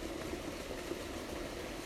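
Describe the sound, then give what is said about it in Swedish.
A steady, unbroken rush of flowing water fills the whole clip at an even level, a dense wash of noise with no voices or distinct events standing out. “Hör ni vattnets brus?”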